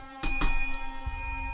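A small hand bell is struck twice in quick succession, bright, its metallic tone ringing on and slowly fading afterward.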